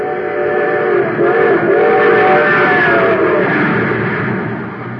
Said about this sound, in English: But now listen to that same train with super fuel in its tank.